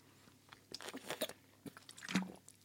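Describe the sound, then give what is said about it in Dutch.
A few quiet sips of water with soft slurping, wet mouth clicks and a gulp or two, irregularly spaced, with no talking. “Ik neem even een slokje water.”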